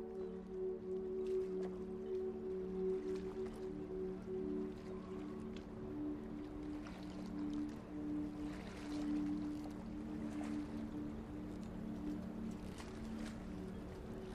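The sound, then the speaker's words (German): Steady harbor ambience with a low engine-like hum, water lapping and scattered clinks and knocks from moored boats, continuous, with no voices. “Deine Reise startet an einem Hafen.”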